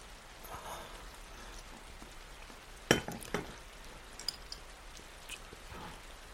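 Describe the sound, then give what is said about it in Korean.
Steady rain falling before the start of winter hisses down in a soft, continuous wash, with a few sharper drips and clinks standing out now and then, without any voices. “겨울이 시작되기 전에 내리는 비는 유난히 춥지.”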